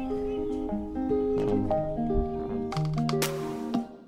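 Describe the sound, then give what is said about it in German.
Heavy lignite excavators drone continuously on a peaceful evening, a hum heard there day and night, with layered whining tones sliding up and down and a few louder metallic rasps and hissing bursts near the end. No one speaks. “Aber dass es nicht für immer so sein wird, verkündet das kontinuierliche Brummen der Braunkohlebagger, das hier Tag und Nacht zu hören ist.”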